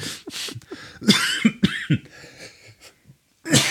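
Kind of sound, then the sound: human body sound, cough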